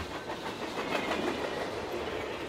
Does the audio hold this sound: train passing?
yes